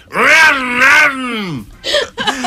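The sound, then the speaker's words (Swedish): A voice mimics a chainsaw revving: two loud, buzzing swells of rising and falling pitch, then a long drooping whine, followed by a few short, rougher sputters. “Och så varvar man motorsågen.”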